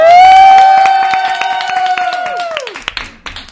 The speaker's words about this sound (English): Have a round of applause for the succulent pasta.